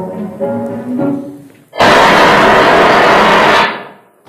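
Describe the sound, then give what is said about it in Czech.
A few quieter tonal sounds, then a sudden loud explosion effect bursts in, a dense roaring blast lasting under two seconds before cutting off abruptly. “Já mám to přijde jenom na ten výbuch, jako jo. Na ten konec.”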